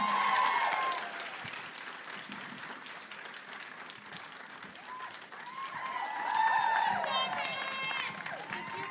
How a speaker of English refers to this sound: Everybody give her a big round of applause.